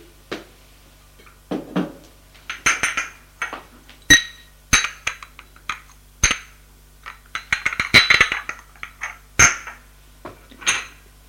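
Dishes and glasses clink and clatter, a scattered series of sharp ringing taps and scrapes over about ten seconds as a woman has her breakfast, with no one speaking.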